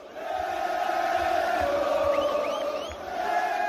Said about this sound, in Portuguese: Neste caso, agora, no mesmo final de semana, para delírio da maior de todas as torcidas.